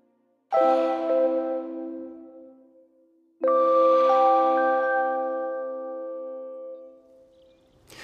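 Two soft electronic robot chimes, each a sustained harmonic tone with an airy, breath-like hiss that swells and slowly fades, pacing like slow inhale and exhale; the robot's sounds are built around the sound of breathing. No one speaks.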